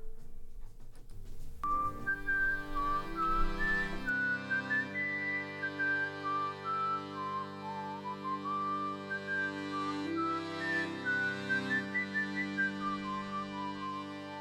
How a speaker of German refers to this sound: Wir hören Musik aus dem Soundtrack zu Wonka.